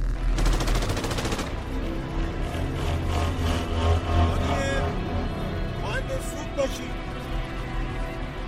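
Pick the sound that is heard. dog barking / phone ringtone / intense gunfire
intense gunfire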